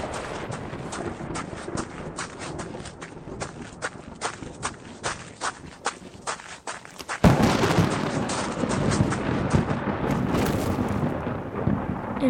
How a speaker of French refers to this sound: Il se retrouve dehors, seul. Un orage surgit au-dessus de lui. Il est terrorisé par ce bruit effroyable.